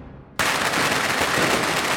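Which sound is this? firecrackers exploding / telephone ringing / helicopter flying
firecrackers exploding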